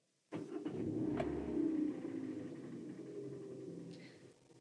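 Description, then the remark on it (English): A woman restarts her car at a graveside: the engine turns over and catches abruptly, then settles into a steady running rumble for several seconds, with a brief higher whine near the start. “She stares at the brown earth of the grave, then restarts her car.”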